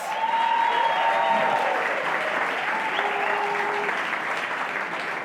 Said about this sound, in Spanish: Eso, la super mami. Un aplauso a todos los actores.